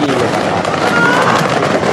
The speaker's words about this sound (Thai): เพราะว่าเพิ่งเกิดขึ้นเมื่อไม่กี่ชั่วโมงที่แล้วนะครับ เราขอคลิปขึ้นมาเลยดีกว่าครับ มีเกิดเหตุระเบิดขึ้นที่